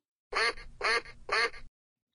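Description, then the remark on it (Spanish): A duck quacks three times in quick, evenly spaced bursts, loud, each quack harsh and nasal, with silence before and after. “Respondió su amigo pato.”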